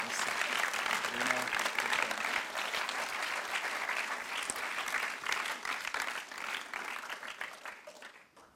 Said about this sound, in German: noch einen warmen Applaus